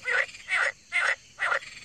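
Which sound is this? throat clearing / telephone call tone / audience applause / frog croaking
frog croaking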